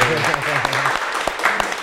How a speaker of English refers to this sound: Thank you, thank you. That's the first time we actually have claps. I usually add them in. I usually add them in when I'm editing, but um, we, we might have we might have some. Uh, We've got some real audience this time.